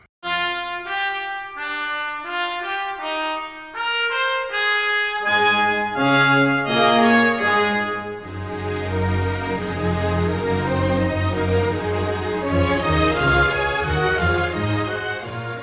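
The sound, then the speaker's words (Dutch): An orchestral passage: a bright melodic line over sparse accompaniment, then a full string section enters partway through, adding warm, sustained low harmony and a richer, swelling sound. No voices. “Ravel in zijn orkestversie dit moment kiest om de strijkers voor het eerst te laten spelen”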